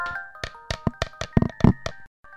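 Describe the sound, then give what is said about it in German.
A series of about ten sharp taps on a wooden board, irregular in rhythm, some louder and thumpier than others, with a faint steady tonal hum behind them and no talking. “Das ist doch ein Brett. Tatsächlich das Brett.”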